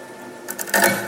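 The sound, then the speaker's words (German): In a puncture test, a very sharp stone tip punctures a gravel bike tire made of highly resistant material: two small clicks, then a louder crunching crack with a brief hiss of air, no voices. “Und dadurch, dass das ja schon der Reifen aus sehr widerstandsfähigem Material so besteht, hört man das auch deutlich.”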